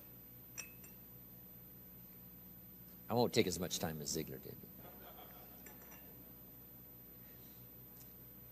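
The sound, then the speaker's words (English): A short, bright clatter of a glass or cup of coffee clinking, lasting about a second, set within quiet room tone while a man speaks. “If this glass is full of water, wow, here's my coffee.”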